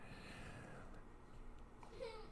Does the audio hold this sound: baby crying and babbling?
yes